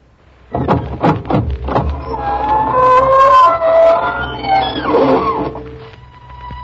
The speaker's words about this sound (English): Good evening, friends of the Inner Sanctum. This is your host bidding you welcome through the squeaking door.